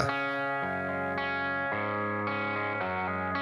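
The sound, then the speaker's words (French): Loud distorted electric guitar chords ring out in a steady pop-punk intro, each chord sustained and changing about every half second, with no voices. “Eh ben, on s'écoute ça tout de suite. Allez. Allez, c'est parti pour ….”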